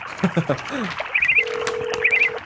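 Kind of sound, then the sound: signal or alarm, phone dialing tones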